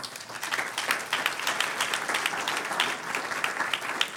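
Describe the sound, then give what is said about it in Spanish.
A crowd applauds the Lord during a sermon, many hands clapping steadily for several seconds in a dense, continuous wash of sound with no voices rising above it. “Un aplauso al Señor.”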